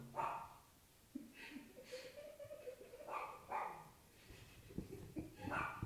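A dog barks repeatedly in short, irregular bursts, with a high thin whine drawn out between barks and no one talking.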